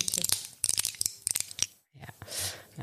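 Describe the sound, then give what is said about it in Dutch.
Crisp crinkling of a small plastic packet of pills, a rapid flurry of sharp crackles and rustles followed by a softer, broader rustle near the end. “Dus dit, is een, dit is, zijn pilletjes. Die kan dus Viagra zijn.”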